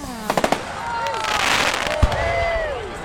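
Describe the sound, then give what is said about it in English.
Fireworks go off outdoors: a rapid cluster of four or five sharp pops, whistling rockets streaking up and down, then a single deeper bang, all over a steady hissing crackle. “so do you remember we did an episode on fireworks yeah.”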